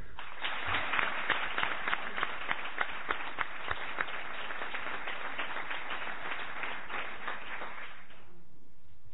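An audience applauds steadily for about eight seconds for the day's first pregó (proclamation speech) speaker, a dense wash of many hands clapping with a few louder individual claps standing out, then it fades quickly to quiet.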